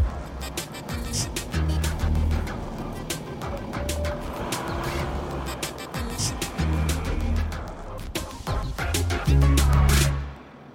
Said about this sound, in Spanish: En el medio del caos, el señor Grinch se sube al asiento del conductor. Arranca a toda velocidad con los aguinaldos robados como si fuera el mismísimo trineo de Santa Claus.